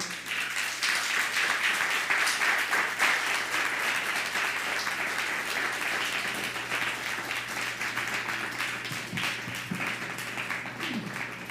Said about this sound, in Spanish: Vamos a, recibir a las naciones con un fuerte aplauso, por favor.